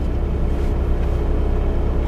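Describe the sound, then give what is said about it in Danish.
A parked car's engine idles in a parking lot with a steady, low rumbling drone, constant in level with no voices for the whole two seconds. “Vi holder stille med motoren i gang på parkeringspladsen.”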